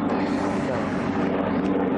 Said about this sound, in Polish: ale tu helikopter leci. To amerykańskie bazy są tutaj w pobliżu, nie? To Amerykanie tutaj latają pewnie.